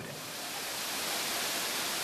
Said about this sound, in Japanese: 皆さんこの音聞こえますか私は今鴨川の源流貴船川の上にいるんです川の上ですよ